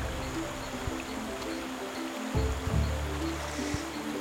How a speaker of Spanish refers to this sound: Acabamos de llegar a la cascada de la Virgen, como la llaman. Es un lugar muy bonito, es una pequeña cascada en el río.